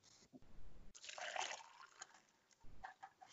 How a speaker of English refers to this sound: Now you have all those sound effects just to go in, and that that is very much like pouring of a soft drink and crushing of the ice.